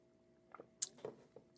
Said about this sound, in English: Child, I'm literally, literally sipping on my coffee.